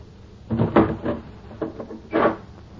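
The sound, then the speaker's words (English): A door is closed and locked: a cluster of wooden thumps and rattles, a short pause, then a final solid clunk as the lock is set. No voices. “Close the door. Lock it”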